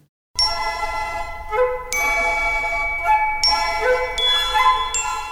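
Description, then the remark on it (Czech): Bright, bell-like chimes of clocks dancing on stage in Amilcare Ponchielli's opera Gioconda ring out in a steady rhythm over sustained orchestral harmony, repeated metallic tinkling strikes layered with strings, fairly loud and clear, with no voices. “Třeba v opeře italského skladatele Amilcare Ponchieliho Gioconda tancují na scéně hodiny. Slyšíte, jak si přitom cinkají do rytmu?”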